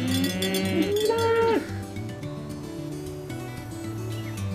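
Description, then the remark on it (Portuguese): Cowbells clank in an uneven, continuous jangle as cattle pass, one drawn-out moo rising and falling early on over a low, steady rumble. “Passa boi, passa boiada em cima daquela serra.”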